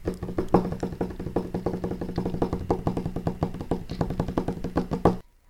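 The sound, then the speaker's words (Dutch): Many fingers drum rapidly on a tabletop, imitating rain, in a dense, continuous patter, a steady rain-like pattering that stops abruptly at the end. No one speaks. “Tik maar eens met al je vingers die je hebt op de tafel of op de grond.”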